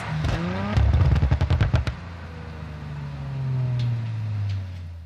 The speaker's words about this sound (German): Ähm, Sechszylinder Audi Motor RS4 oder RS5.